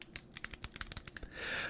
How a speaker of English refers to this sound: I have no idea how to spell it, but I'm, I'm writing it down on a piece of paper.